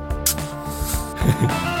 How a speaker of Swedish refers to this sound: Nu öppnar vi flaskan.